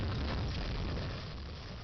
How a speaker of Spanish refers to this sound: se estrella bien gacho, ¿no? O sea, como que es, una señora y de alguna manera pierde la. pierde el. pierde el control y se estrella.